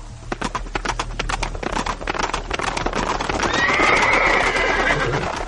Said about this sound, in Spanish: Retrocediendo sobre nuestros pasos, escuchamos el sonido de los cascos de los caballos. En nuestra retaguardia, Cortés y varios capitanes llegaron a salvarnos de la muerte.